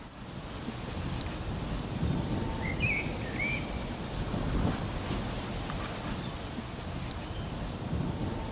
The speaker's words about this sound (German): Wir genießen sprachlos. Und halten das Mikrofon in den Wind.